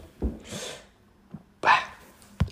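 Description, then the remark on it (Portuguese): A few sudden, jerky hiccups with breathy air rushing after them, fairly loud, separated by short pauses, ending in a sharp clipped catch. No talking. “não interessa, vou dar um soluço.”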